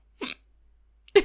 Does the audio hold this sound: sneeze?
yes